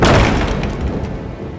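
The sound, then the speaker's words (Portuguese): A thunder clap sound effect: a loud, sharp thunder clap bursts out at full strength and then rolls off into a heavy, low rumble that slowly fades over a second or so, with no voices. “Junto com um trovão, a porta explode”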